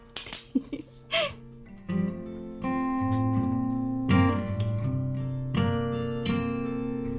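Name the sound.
glasses clinking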